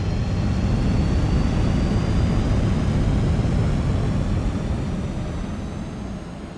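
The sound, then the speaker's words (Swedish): A powerful rocket engine roar at the launch of China's first crewed spaceflight, after a countdown, a dense, rumbling wall of sound heavy in the low end, holding steady and loud before easing off slightly at the end. No voices. “Motorerna brummade högre och högre. Tre, två, ett.”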